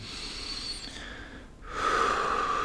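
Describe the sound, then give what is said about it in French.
A long, deep breath drawn in, airy and slightly nasal, with a short pause before a louder, whistly rush of air continues to the end. “Prenez une bonne respiration et”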